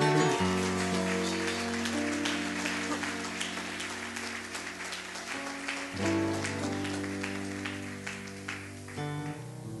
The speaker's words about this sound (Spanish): Dale un aplauso al rey.